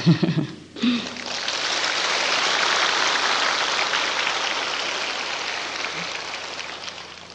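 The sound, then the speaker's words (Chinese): An audience at a Buddhist sutra lecture in Taiwan breaks into sustained applause, a dense crackle of many hands clapping that swells quickly and holds steady for several seconds, following a short bit of voice at the start. “我自己要鼓掌的。”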